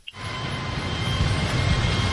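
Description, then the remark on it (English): A train wreck sound effect: a loud, continuous rumbling roar with heavy low-end noise that starts abruptly and holds steady for about two seconds, with no voices. “was that the train wreck?”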